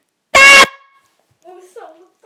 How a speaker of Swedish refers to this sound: Efter, typ precis när jag säger godnatt, då, då, då kommer jag skrika. Så sänk ljudet nu.